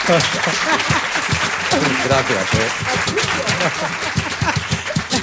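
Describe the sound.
Audience applause, a dense, steady crackle of many clapping hands, continues for several seconds while a voice speaks over it.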